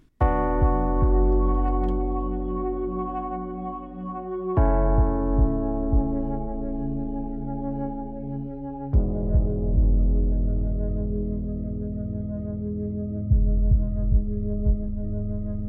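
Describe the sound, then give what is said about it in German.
A pop song plays: sustained, bright synth chords that shift to a new chord every four to five seconds over a low, pulsing bass thump, with no singing. “Du hast uns ein Lied mitgebracht,”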